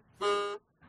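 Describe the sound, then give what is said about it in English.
A mobile phone vibrates right against a microphone, one loud, harsh, steady buzz lasting under half a second before cutting off, followed by faint hiss. No one speaks. “That's my phone buzzing right next to my microphone.”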